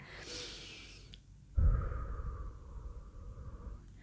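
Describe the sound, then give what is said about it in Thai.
A deep, hissing breath is drawn in, followed after a short pause by a long, steady exhale blown out through pursed lips, fairly loud, with no talking, demonstrating a breathing technique to calm nervousness. “ปกติถ้ายังตื่นเต้นมากๆ เนี่ยจะหายใจเข้าลึกนะคะ แล้วก็เป่าปากออกมานะคะแบบนี้นะคะ”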